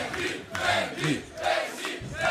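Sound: audience applause and cheering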